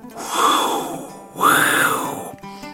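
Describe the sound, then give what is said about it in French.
A voice imitates howling wind with two long, swelling "whoo" sounds, each rising and then falling away. The howls are fairly loud, and nothing else plays underneath. “Soudain, le vent lui apporte une tornade.”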